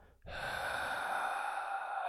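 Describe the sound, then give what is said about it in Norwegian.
A voice imitates a man's long, steady exhale as the air leaves his lungs and he becomes lifeless, a breathy airy rush starting abruptly and holding for about two seconds, fairly loud, with no talking. “langt pust, som at eh, luften forsvinner ut av lungene hans og han eh, blir eh, livløs igjen.”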